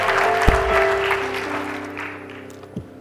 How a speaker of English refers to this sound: Amen. Give the Lord one more hand clap of praise if you would.